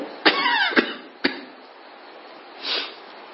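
Three sharp, harsh coughs in quick succession from someone who has just breathed in deeply, followed after a pause by a soft, breathy rush of air. No talking.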